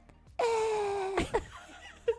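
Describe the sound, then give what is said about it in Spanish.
A person imitates baby turtles' mating call with one loud, steady, high-pitched moaning squeak, held for nearly a second, then cut off by a short breathy burst and faint vocal noises. “es que es demasiado bizarro, sobre todo cuando son tortugas bebés y hacen como...”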